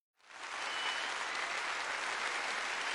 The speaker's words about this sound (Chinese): 十秒钟之后，人群之中瞬间爆发出雷鸣般的掌声，所有的观众尽皆起立。纷纷开始高喊叶晨的名字。